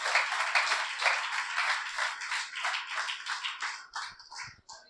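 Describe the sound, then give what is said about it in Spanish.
A church audience applauds the Lord after a prayer, with dense, steady clapping that fills the whole clip, bright and crackly, thinning out toward the end as a few scattered claps trail off. “Pueden sentarse, hermano, denle un aplauso al Señor.”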